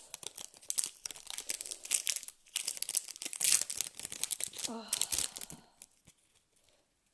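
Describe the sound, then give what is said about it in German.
A Kampfstyle trading card booster pack with Volauso Wasserform on it is torn open, with bursts of crinkling foil and ripping for about six seconds; a brief exclaimed syllable is heard in the middle, then it falls quiet. “Dann kommen wir jetzt zum ersten Kampfstyle-Pack mit Volauso Wasserform drauf.”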